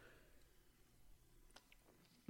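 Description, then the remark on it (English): Quiet sipping of sparkling water: faint mouth clicks and soft swallowing noises, ending in a brief louder knock or clunk. No one speaks. “Uh, gonna take another sip of my sparkling water because my mouth is parched.”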